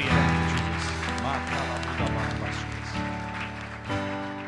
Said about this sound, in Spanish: Un aplauso al Señor.